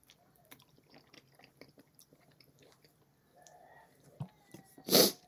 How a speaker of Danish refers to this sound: Men jeg må spise noget æg.